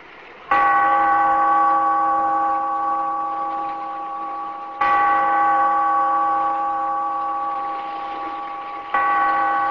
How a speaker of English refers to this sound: Bellkeeper, toll the bell, so that all may know we are gathered again in the Weird Circle.